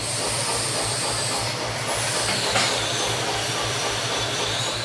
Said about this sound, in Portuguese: Olha, uma piada recorrente no nosso grupo é barulho de maquita, né?